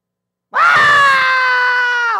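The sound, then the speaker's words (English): A single voice lets out a loud, sustained, high-pitched scream lasting under two seconds, mimicking the frenzied screaming of a shouting crowd. No words are spoken. “They're too busy screaming.”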